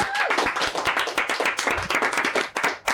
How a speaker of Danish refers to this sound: Ja, ja, klap, ja, klap, klap, klap, klap.